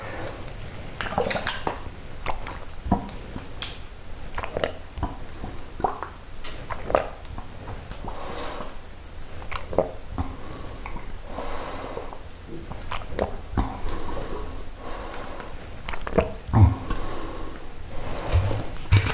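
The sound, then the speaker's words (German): Water is gulped in the morning from an already opened bottle in repeated swallows, with wet sloshing, small clicks and gulping sounds continuing steadily throughout, no talking. “Also mein Wasserpensum habe ich jetzt erstmal gedeckt.”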